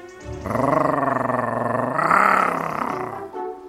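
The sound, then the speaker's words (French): A wolf growls in one long, loud snarl that lasts about three seconds, swelling in the middle before tapering off, with no other sounds around it. “À grogner comme un méchant loup.”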